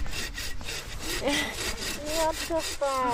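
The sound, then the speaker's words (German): A hand saw rasps steadily through wood in repeated back-and-forth strokes, fairly loud, with faint squeaky tonal scrapes as the blade binds near the end. “Und immer die, das ganze Sägeblatt genau. benutzen.”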